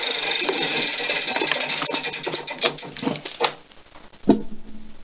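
A prize wheel is spun, one of three spins given, with a rapid, steady stream of sharp clicks that gradually slow and space out over a few seconds before stopping, followed by a single dull knock.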